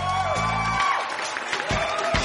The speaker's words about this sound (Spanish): Aplausos, gritos